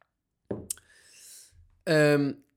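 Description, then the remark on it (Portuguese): A quiet sip of water: a soft mouth click and a brief airy slurp, followed by a short voiced 'ahh' of breath afterward. “Vou só dar aqui um golinho de água.”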